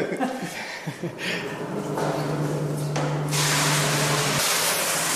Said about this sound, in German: Erstmal läuft da sehr viel Wasser in den Kessel und dann kommt das Schrot.